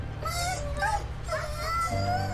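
A rottweiler whimpers and howls in a series of high, wavering whines that rise and fall, moderately loud over a low steady background hum, with no one talking.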